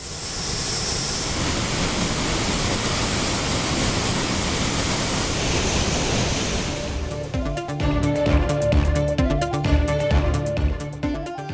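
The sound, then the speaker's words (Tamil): A steady, loud roar of water gushing over the Hogenakkal waterfalls, swollen by heavy rain in the catchment areas, with inflow up to ten thousand cubic feet. It fills the first seven seconds, a dense continuous rush with no voices, before music takes over and the water fades out. “ஒகேனக்கலுக்கு நீர்வரத்து பத்தாயிரம் கன அடியாக அதிகரிப்பு நீர்பிடிப்பு பகுதிகளில் கனமழை காரணமாக அருவிகளில் சீறிப்பாயும் தண்ணீர்”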